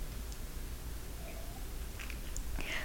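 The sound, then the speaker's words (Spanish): A soft sip of bitter coffee without sugar, the first sip of the day, a few faint wet slurping sounds building to a brief, breathy slurp at the end, over a steady low hum with no talking. “Así que voy con este primer sorbito del día.”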